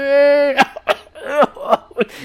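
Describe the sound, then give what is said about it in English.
A person acts out a character's fit of coughing as she coughs up fungus: a strained, drawn-out vocal groan followed by five or so harsh, raspy coughs in an uneven rhythm, fairly loud. “she like coughs out some of like the fungus onto Good you.”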